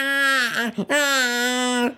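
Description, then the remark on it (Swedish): A voice imitates a baby's whimpering cry with two drawn-out, nasal "meh" wails, a brief break between them, steady pitch and fairly loud. “Och så lägger man sig ner, man har precis dragit ner ögonmasken, satt i öronpropparna och så hör man bara meh, meh.”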